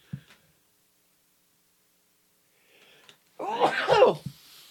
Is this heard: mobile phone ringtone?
no